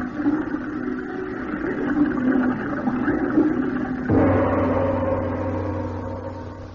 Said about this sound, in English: And to make the job complete, I'll just open those spigots and flood this room.